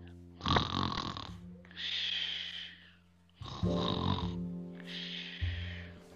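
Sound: voice imitating snoring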